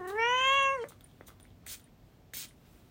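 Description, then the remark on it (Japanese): A single long, rising-and-falling cat meow rings out clearly, followed by quiet background with a couple of faint, brief noise bursts. No one speaks. “猫が黙った”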